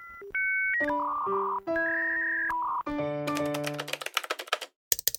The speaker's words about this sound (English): Now I'll just open the dishwasher and.